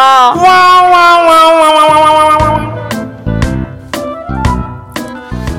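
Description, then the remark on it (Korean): A person imitates a dog, starting with a long, high, wavering whine, then breaking into about four or five sharp, loud barks at uneven intervals. “저희가 좀, 좀 리얼하죠, 개소리가 딴 때보다.”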